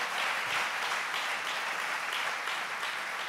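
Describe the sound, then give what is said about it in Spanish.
A church audience claps steadily and loudly in applause to the Lord, a dense wash of applause from many hands without pause and without voices. “Dele fuerte ese aplauso al Señor.”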